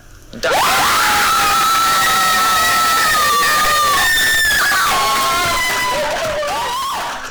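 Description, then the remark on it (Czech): A small group, the makers of the short Czech animated film Cera, bursts into loud, joyful screaming and cheering at its Oscar nomination for best animated short film, with sustained high-pitched shrieks that carry on for about seven seconds before easing slightly at the end. “Marhoulovo nabarvené ptáče se sice do nejužšího výběru nedostalo, ale poslechněte si, jakou radost udělala nominace tvůrcům krátkého českého animovaného filmu Cera.”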